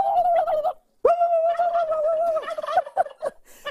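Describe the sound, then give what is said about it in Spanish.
A person loudly imitates a turkey's gobble in a studio during a Thanksgiving Day broadcast of El Gordo y la Flaca: two warbling bursts separated by a brief pause, the second stretched longer with a rapid trilling wobble, clear with no other talk. “¿Pero qué tú estás tratando de hacer, Raúl? pero como un pavo, Lili.”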